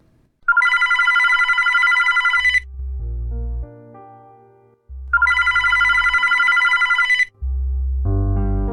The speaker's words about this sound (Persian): صدای زنگ تلفن اومد. شاید پدر باشه.